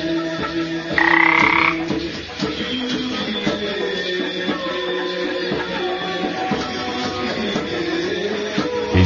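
Frogs croak steadily in a dense outdoor chorus, with layered overlapping calls and a brief louder, higher-pitched trill near the start. No one speaks.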